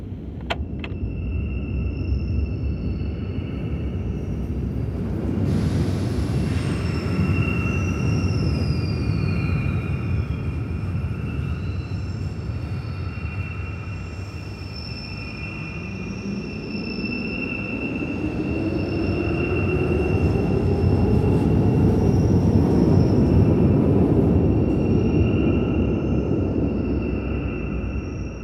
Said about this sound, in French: Depuis le métro, je vois le noir infini des tunnels. Ils sont longs et sinueux.